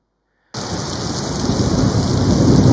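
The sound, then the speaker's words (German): After a brief silence, a heavy windstorm on a lake bursts in: dense, steady rain with a deep rumble of thunder swelling underneath, loud, growing stronger toward the end. “Unterwegs legte sich Jesus schlafen, doch während er schlief, kam Wind auf. Der Wind steigerte sich zum Sturm”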